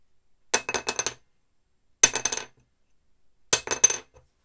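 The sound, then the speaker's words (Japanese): A small, heavy wooden rod, a new, heavier violin soundpost, is dropped from about 7 cm onto a wooden workbench three times, each landing followed by a few quick, bright bouncing clatters, with silence between drops. “次、えー、重く、重くなってる新しい昆虫の音です。”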